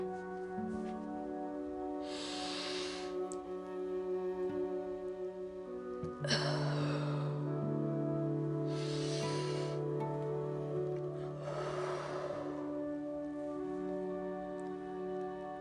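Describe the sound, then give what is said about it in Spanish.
Slow, deliberate breaths of a diaphragmatic breathing exercise for theatrical breathing, about four long inhales and exhales spaced a few seconds apart, over steady soft instrumental music with no talking. “Respiración diafragmática.”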